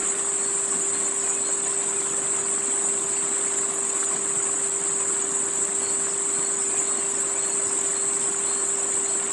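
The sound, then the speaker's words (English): A steady, continuous rush of flowing stream water with a loud, unbroken high-pitched chorus of crickets over it and a faint constant hum underneath; no one speaks. “Listen to the sound of the flowing stream.”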